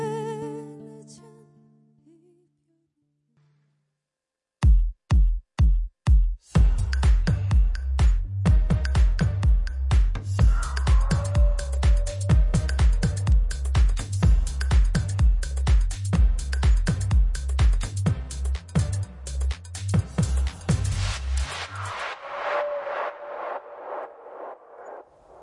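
A Korean pop song performed live, the live version from the show I Am a Singer: a soft sustained note fades into silence, then punchy drum hits kick in and a full, loud band settles into a steady, driving beat.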